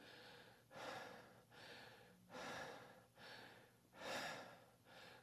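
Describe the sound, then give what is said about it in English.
A person imitates the labored, gasping breathing of a man with lung cancer in hospital: six heavy, rasping breaths in a steady rhythm, fairly loud, each a broad noisy rush, with no talking during it. “He's breathing like, like this.”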